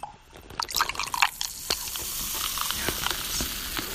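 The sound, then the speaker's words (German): Wheat beer pours into a glass with a steady liquid rush, scattered drips and splashes, and a rising crackly fizz of foam, continuous for several seconds with no talking. “Da denke ich mir, da mache ich mir ein Weißbier auf.”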